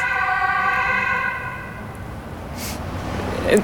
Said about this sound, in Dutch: In mijn boek komen er ook steeds ambulances langs. Dat komt omdat hier een ziekenhuis zit. Deze straat.